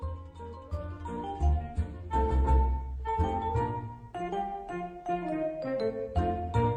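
A recorded song plays on air at full volume, a singing voice riding over steady, rhythmic accompaniment with a deep bass line. The music runs continuously, with no talking over it.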